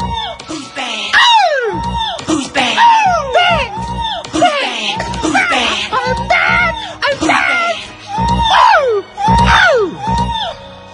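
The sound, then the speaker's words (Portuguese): A singer lets out loud, high-pitched screams again and again, each one swooping up and then sliding down in pitch, in quick bursts that fill the whole stretch with a faint background din. “As pessoas adoravam aquele grito.”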